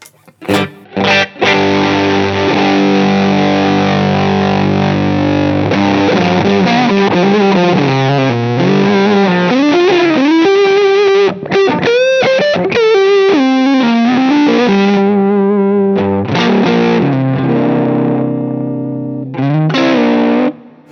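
A distorted electric guitar played through a distortion pedal plays sustained, buzzing chords and bending single-note lines, loud and saturated with a gritty edge, pausing briefly before a final held chord.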